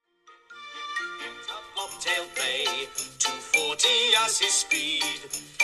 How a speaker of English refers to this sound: Um, so okay, we hear another verse of the song as Fanny and George head into town.